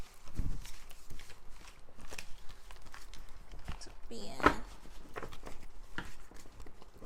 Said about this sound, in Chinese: 那我也先来洗牌。